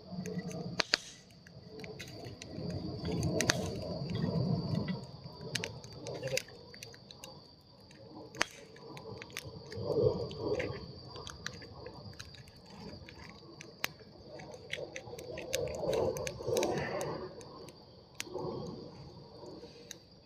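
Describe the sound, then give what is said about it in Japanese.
Cracking, snapping and rustling of firewood being handled and broken for a campfire at a campsite, irregular bursts with sharp clicks over a steady background hiss, no one talking. “ちょっと今、木と戦ってるんで、ちょっと音だけ楽しんでください。”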